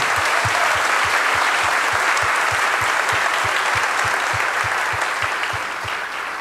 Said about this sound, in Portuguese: E nós recebemos aí a turma da conexão voltando do campo voltando do campo missionário. Vamos dar mais uma salva de palmas aí para a galera.